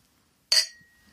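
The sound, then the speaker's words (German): A single bright clink of two glasses tapped together in a toast, with a short ringing tone that fades out; fairly crisp against a quiet background. “Prost, komm.”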